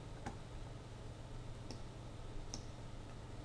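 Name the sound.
computer mouse clicking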